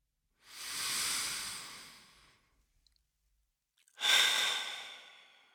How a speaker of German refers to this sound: Wenn du bereit bist, atme tief ein und hörbar aus.